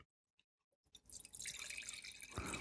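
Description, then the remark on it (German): Syrah wine poured into a glass: a few faint clinks, then a steady close-up gurgling stream that grows fuller and louder as the glass fills, with no talking. “Gieße ich mir mal einen ein.”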